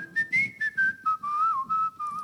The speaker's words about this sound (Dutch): te fluiten door het park.